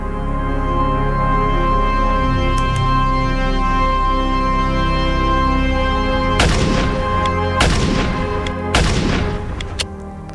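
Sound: gunshot sound effect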